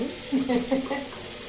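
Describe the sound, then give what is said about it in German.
Hot water pours steadily into a cup for about a second, a gentle splashing trickle with a faint hiss underneath, no voices present. “Möchtest du das Wasser ohne oder mit Blätterli?”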